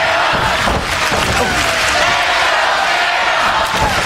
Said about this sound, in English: Listen to the crowd chanting, let's go Shamrock!